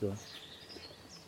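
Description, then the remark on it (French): Faint, high-pitched Eurasian nuthatch calls, thin whistled notes repeating across the moment, following a brief low voice at the very start. “C'est le torche oui. c'est le cri de la citelle.”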